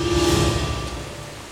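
A heavy torrential downpour roars in a dense, steady hiss, loud, with a low rumble and a faint sustained hum beneath it, falling at nightfall on a man sitting at the foot of a tree; no one speaks.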